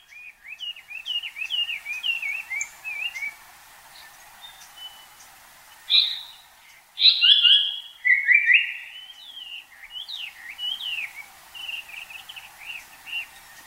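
A Japanese paradise flycatcher sings on Mount Takao, Tokyo, over a steady chorus of thin, high twittering calls, its louder whistled phrases bursting out in the middle before the background chirping carries on. No voices are heard.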